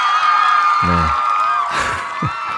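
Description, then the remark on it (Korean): A loud, steady wash of welcoming crowd cheering and applause from a song runs throughout, with a few short whoops and shouts rising above the noise. “환영의 박수.”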